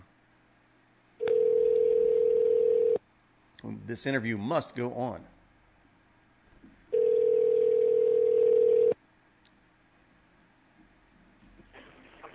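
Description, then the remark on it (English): A telephone line tone sounds in two steady, loud two-second bursts separated by a pause while calling back a man on a satellite phone to reestablish a dropped connection, with a man briefly speaking in the gap between them over faint line hiss. “So let's see if we can get get him back on the phone.”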